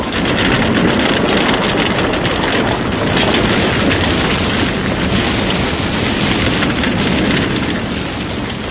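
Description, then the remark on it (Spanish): A massive explosion at a mansion engulfed in fire, with crashing stone and splintering wood, heard as a loud, dense roar of rumbling debris that holds steady for several seconds without easing off. No voices. “Surgió de la mansión un terrible ruido de piedras y maderas destrozadas, producido por una gran explosión.”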